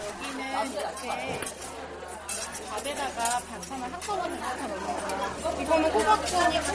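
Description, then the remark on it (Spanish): Bowls and cutlery clink repeatedly in short, bright bursts amid a steady hum of overlapping conversation during a communal meal in a Buddhist temple dining hall, where the food is served in a single large bowl. “La regla budista consigna que nadie deje la comida y que cada uno limpia el cuenco y los cubiertos que ha usado.”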